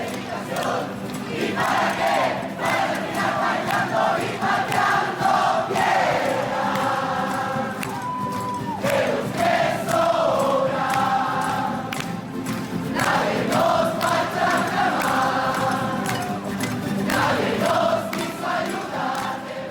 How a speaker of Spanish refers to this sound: en el año 2019, un grupo de personas salieron a protestar utilizando esta canción con la que se sentían identificados. Así que escuchemos un poco cómo esta gente durante esas protestas se sienten identificados con esta canción y salen a protestar.